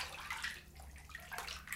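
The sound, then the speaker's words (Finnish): Soft watery swishing and sloshing of a hand slowly moving through bathwater foam in a bathroom, with faint fizzing bursts of bubbles rising from the foam; quiet and continuous with no voices. “Liikutin kättäni ja vaahdosta nousi kupla.”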